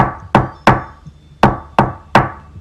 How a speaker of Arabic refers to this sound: الليلة دي الخبط على الباب اتكرر مرة كمان بس أنا تجاهلته تماما استمر يخبط حوالي نص دقيقة